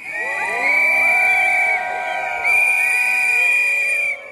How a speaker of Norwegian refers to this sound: Demonstrasjonen her i Berlin retter seg mot en bygning et par hundre meter unna. Den tyske forbundskansleren Angela Merkels kontor, der europeiske ledere er samlet for å snakke om nettopp den skyhøye arbeidsledigheten blant europeisk ungdom.